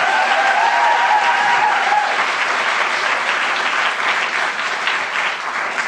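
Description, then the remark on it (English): A crowd applauds steadily, a dense wash of clapping hands that stays loud and full for several seconds, with faint cheering early on before it settles into sustained applause. “Please give … a big round of applause.”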